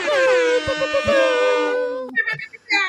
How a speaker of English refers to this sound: Ayo! Amazing! Air horns! Air horns!